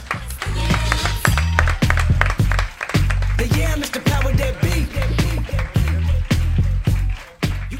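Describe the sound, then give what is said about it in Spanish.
An audience at Café La Palma applauds steadily and loudly. Dense clapping fills the space, with occasional voices and cheers rising through it before it tapers at the end. “el aplauso, por supuesto, principal tiene que ser al público lunero que ha vuelto a llenar el Café La Palma”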